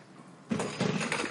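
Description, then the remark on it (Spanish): A chair is shoved aside by a woman in a hangar as a professor stands up, scraping across the floor in three rough, grinding bursts over about a second, moderately loud with no voices. “El profesor se levanta y Raquel aparta su silla.”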